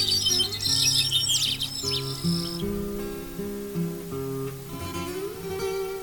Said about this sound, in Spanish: Cruzaba yo la plaza de los héroes. Estaba oscureciendo y la boruca de los pájaros en los laureles empezaba a calmarse.